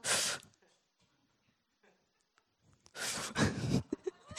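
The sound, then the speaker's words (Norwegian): A voice imitates the breathing technique of a skilled swimmer: a short, forceful breathy burst, a quiet pause, then a longer, louder huffing breath sequence, with no other sounds. “De har en helt spesiell måte liksom, de puster på.”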